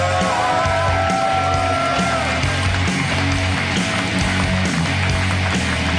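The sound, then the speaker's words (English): A Harmontown live show audience cheers loudly and steadily for Dan Harmon for about six seconds, a dense roar of clapping and shouts, with a few high, sustained whoops rising above the crowd early on. “Let's hear for your mayor, Dan Harmon, everybody.”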